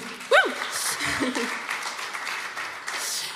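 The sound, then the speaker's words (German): An audience breaks into steady applause for a small ficus plant (Ficus benjamina), a dense patter of clapping that runs throughout. A brief vocal whoop or laugh rises at the start, and a few voices are heard under the clapping. “Ein Applaus für meinen Fiskus Benjamin.”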